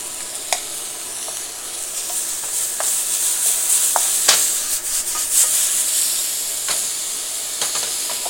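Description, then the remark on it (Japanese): Food sizzles steadily in a hot Chinese wok while a utensil scrapes and stirs in a seasoning mixture, with sharp clicks and scrapes scattered irregularly over the continuous frying hiss, fairly loud, with no talking. “こういうものをさその混ぜたりとかするのに中華鍋は便利だよね中華鍋ってパラボラみたいになってるからさもうなんかなんていうの味付けをね全体に行き渡らせるみたいな”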